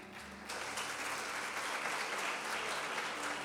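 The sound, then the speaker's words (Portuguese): A church audience bursts into sustained applause for God, a dense, steady wash of many hands clapping that starts abruptly and holds at an even, loud level throughout. “Aquele que crê dá uma salva de palmas para Deus.”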